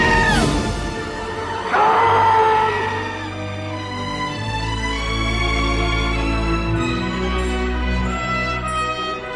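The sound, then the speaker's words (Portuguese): A man's scream: a man lets out a loud, drawn-out scream that wavers in pitch and holds for several seconds, with a deep rumbling backing sound underneath. “A gente volta depois do grito do ….”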